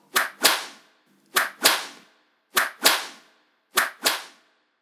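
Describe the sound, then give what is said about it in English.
Four sharp cane strokes of corporal punishment, given to a child bent over a desk, land at steady intervals. Each is a quick swish followed by a loud, stinging crack that rings off briefly. No voices accompany them. “with the youngest member of the family, being me, often bent over his desk, receiving four of the best.”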